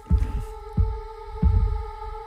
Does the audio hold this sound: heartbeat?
yes